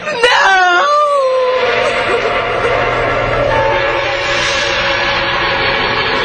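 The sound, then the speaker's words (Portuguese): A mother, frantic with grief, lets out a loud, anguished wail that breaks into a scream, her voice sliding downward in pitch, then continues in sustained, sobbing cries, calling out for her dead 17-year-old son, over a noisy, echoing background. “Enlouquecida de dor, a mãe gritava em altos brados, chamando pelo filho morto.”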